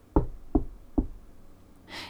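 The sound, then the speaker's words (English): Three soft, evenly spaced knocks on a wooden coffee table, dull, made by a woman leaning forward, followed by a faint brushing hiss at the end. “She leans forward and knocks softly three times on the coffee table.”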